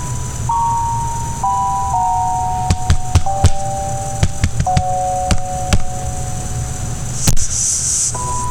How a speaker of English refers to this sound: Tap tap. Tapping on my glass, loud and rough, like a child's tapping on a fishbowl. There it is again.